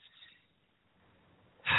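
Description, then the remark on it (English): A brief, faint snoring sound: a breathy rasp, then a low rumbling inhale that ends in a sudden loud snort. No one speaks. “Now, there's one you can get out that snore again if you'd like.”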